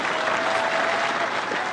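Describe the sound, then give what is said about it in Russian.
A crowd claps vigorously in long, stormy applause welcoming Stanislav Aleksandrovich Belkovsky, a dense, continuous roar that stays loud and steady throughout, with no voices heard over it. “мы встречаем длительными и бурными аплодисментами Станислава Александровича Белковского.”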